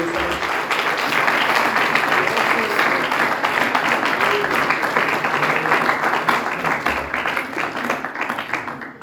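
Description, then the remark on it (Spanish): An audience bursts into sustained applause as an offering to Jesus, a dense wash of many hands clapping steadily at a loud, even level for several seconds, with faint voices mixed in beneath it. “Si tú quieres llegar a la amistad más íntima con Jesús, dale una ofrenda de palmas a Él.”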